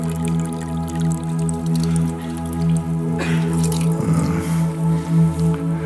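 Water drips steadily, with small repeated plinks over a constant low hum and a brief, heavier splashing run in the middle, moderately loud.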